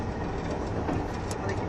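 A KiHa 71 series diesel train, the Yufuin no Mori No. 3, runs between Yufuin and Beppu with a steady, dense rumble of engine and wheel noise, constant and fairly loud for the whole short stretch, with no clear clicks or squeals standing out.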